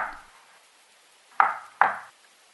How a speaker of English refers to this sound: I hear him knock at the next door. Shave and a haircut.